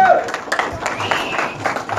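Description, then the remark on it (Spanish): An audience at a training session applauds itself steadily, many hands clapping in a dense, crackling patter that continues throughout, with voices calling out over the clapping. “Palmas por ustedes, por favor.”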